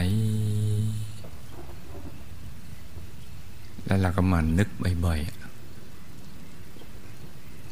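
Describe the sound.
Steady, even rain falls on a swamp, a constant soft hiss throughout. A low hum sounds at the start, and a voice speaks briefly over the rain midway.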